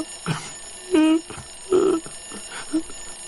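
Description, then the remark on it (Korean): An alarm clock rings in short, loud electronic bursts, three spaced pulses repeating in a steady pattern, with no voices over it. “누리가 준 알람시계 소리가 커서 좋구나.”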